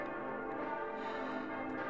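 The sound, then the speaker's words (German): Five church bells in a church tower, cast in 1959 by the Erding bell foundry in Bavaria and tuned to A, C, D, E and G, ring together in a full, sustained peal. Their overlapping tones blend into a steady, resonant wash without pause or other sounds. “1959 bekam der Turm sein außergewöhnlich klangvolles Geläute mit fünf Glocken.”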